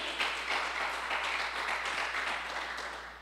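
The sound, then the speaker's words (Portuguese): A church audience applauds the Lord in a steady, dense wash of clapping that holds level for a few seconds, a broad crackling texture with no voices standing out. “Quem está entendendo, diga amém aí, dá um aplauso ao Senhor aí, porque Ele é perfeito.”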